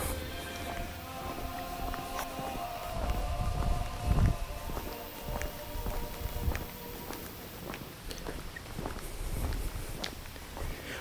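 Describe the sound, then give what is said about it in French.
Faint singing voices of a group of singers drift from far off across the village of Urtaka on 14 July, sustained and tuneful, while footsteps tap unevenly in the foreground over quiet outdoor ambience. “On les entend au loin. Les voix montent à travers le village.”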